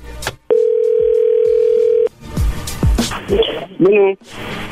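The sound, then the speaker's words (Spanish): A steady, unbroken telephone tone after the other party hangs up holds for about a second and a half, then gives way to overlapping voices talking, with a brief warbling tone near the end. “¿Lo cortó la llamada o qué? Sí, cuando escuchó tu voz como que colgó.”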